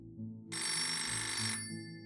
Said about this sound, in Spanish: Sonó el teléfono de mi habitación y al contestar mi ayudante me dijo, le hablan.